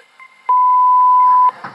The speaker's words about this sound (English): Leave your message after the beep.